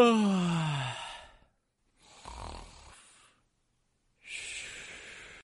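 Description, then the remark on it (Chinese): A long, voiced yawn slides downward in pitch, then trails off. Two breathy, snore-like breaths follow after short silences, as a dough character in a children's story stretches, yawns and falls back asleep. “面团先生伸了个懒腰，打了个哈欠，又睡着了。”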